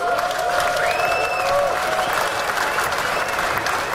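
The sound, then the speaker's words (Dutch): Steady audience applause fills the whole stretch, a dense even patter of many hands clapping at constant loudness, with a couple of faint rising tonal swoops sounding briefly over it. “Applaus voor Leeswe en dan vooral voor eh, ja, de 30 mensen die het hebben ingestuurd.”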